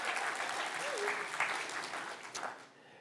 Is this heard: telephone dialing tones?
no